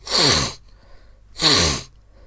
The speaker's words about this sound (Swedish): Ska jag snyta mig? Bara skita i vilket och bara snyta mig liksom?